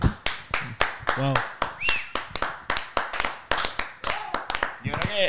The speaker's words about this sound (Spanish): Un aplauso, por favor.